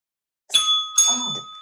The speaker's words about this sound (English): And we're back to using the bells here. So if you think you've got the, the answer, ring your bell.